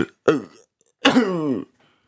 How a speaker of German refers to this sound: Was war das denn? Das war kurz vor Husten. Kennst du das, wenn du hustest, aber noch den Satz zu Ende sprechen willst?